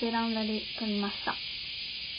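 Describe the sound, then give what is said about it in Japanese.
A steady, hissing drone of cicadas buzzing outdoors, their calls heard coming in from outside, fills the background without pause, while a person speaks briefly over it at the start. “私が取ってきた音はセミの音です何の音を取ろうかなって考えていたら、外からセミの鳴き声が聞こえてきたので、”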